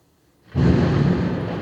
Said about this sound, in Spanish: Eso sí fue un trueno. Eso sí fue un trueno.